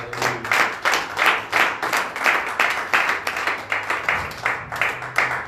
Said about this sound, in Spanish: Denle un fuerte aplauso a mi Dios.